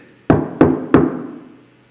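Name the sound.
knocking on a door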